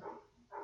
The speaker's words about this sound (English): I'm recording another pilot for a fucking a possible second podcast that I'm doing, and my neighbors are out front fucking with my dog. Great. You guys hear that? That's my that's my dog Greg barking.